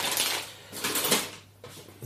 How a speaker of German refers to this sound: Und die Tüte muss ich nochmal aufmachen. Ich habe die nicht ganz reingekriegt, aber es ist nur Luft drin und dann kriege ich die in den Kühlschrank.